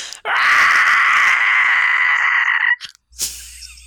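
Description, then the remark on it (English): A loud, piercing shriek held for about two and a half seconds, made by a human voice imitating a Nazgul's scream, followed by a brief sharp breathy burst. “where we just ask people to submit their best Nazgul impressions. They sound like that.”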